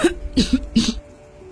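human body sound, coughing

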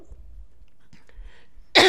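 human body sound, coughing

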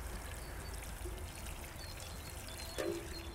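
household object, water pouring

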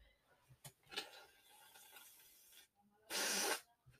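human body sound, nose blowing

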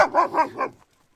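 animal, dogs barking

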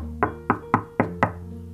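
sound effect, knocking on a door

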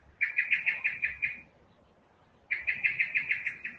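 bird, bird chirping and singing

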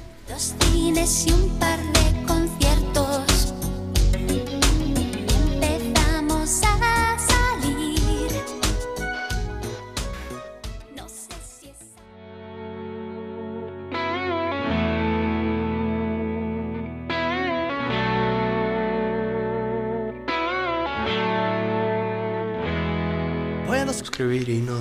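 sound effect, rock song played

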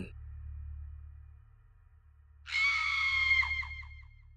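sound effect, woman screaming

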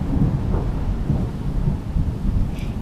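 nature, thunderstorm with thunder

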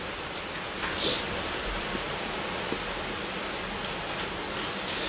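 nature, heavy rain outside

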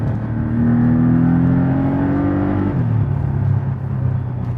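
vehicle, car engine revving roar

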